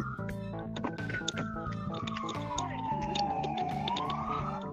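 A police siren wails steadily, its tone sliding slowly downward and then climbing again, layered over a busy, cluttered background hum with no talking.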